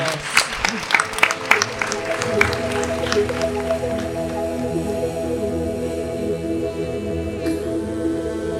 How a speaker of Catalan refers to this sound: Un aplaudiment per ella. Vinga, doncs amb aquest aplaudiment marxem.